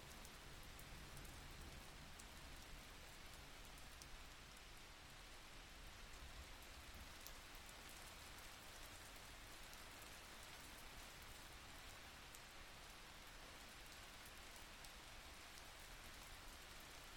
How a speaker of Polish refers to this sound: powoli przeniesie swoją uwagę ze swojego ciała na dźwięki deszczu, nieprzerwanie utrzymując w swoim ciele stan nieruchomej, błogiej ciszy.